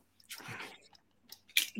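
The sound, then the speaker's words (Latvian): A coil being pulled out of a first-generation Boost vape tank by hand: a quiet squishy scrape, a short pause, then a sharper wet pop and a soft squelch. No one speaks. “Nu, labi, es tas izņemšu ārā šito.”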